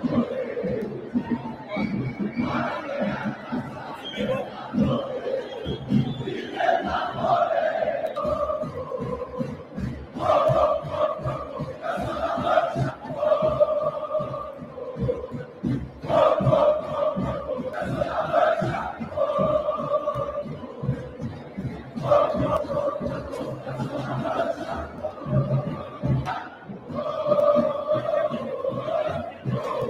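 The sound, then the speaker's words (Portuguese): A large stadium crowd chants and cheers continuously, loud, rhythmic group singing with repeated melodic phrases and a steady pulse of clapping or stamping underneath. “Isso aí, que coisa linda, que torcida espetacular.”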